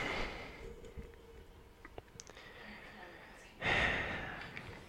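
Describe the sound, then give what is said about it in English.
A man deliberately makes himself gag, dry-heaving with strained throaty breaths and snorting gasps while trying not to throw up, ending in one loud, harsh retching burst that trails off slowly. “I was like, I can make myself gag.”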